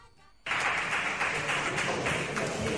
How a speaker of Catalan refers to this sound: Senyors del públic que acaben d'aplaudir, els demano que surtin de la sala.